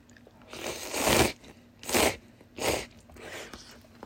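Eating noises: about four wet, crunchy bursts of chewing and slurping mapo tofu noodles, spaced irregularly over a few seconds, fairly loud with quiet pauses between and no talking.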